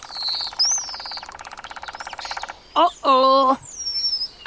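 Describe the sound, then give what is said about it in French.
A woodpecker drums on a tree trunk with its powerful beak in a long, rapid, evenly spaced burst of taps while high bird whistles sound over it; then come a short harsh call and a loud buzzy, nasal cry. “C'est parti Ah, ça va envoyer du bois Le pivert se met à tambouriner sur le tronc de son bec puissant.”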